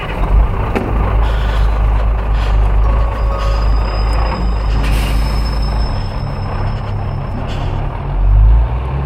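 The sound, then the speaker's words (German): A heavy truck rumbles along with a steady low engine drone, a thin high beeping tone running through part of it and a brief hiss near the end, with no voices. “Es wurde Zeit, bei der nächsten Möglichkeit aus dem Laster zu springen.”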